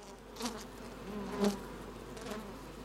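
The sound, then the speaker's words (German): Saxon wasps buzz softly and steadily at a small nest, their droning hum swelling briefly as individual wasps pass, with no voices present. “Da haben wir zum Beispiel nur so ein Nestle, das ist jetzt so sächsische Wespe nennt man die und die ist natürlich wunderbar.”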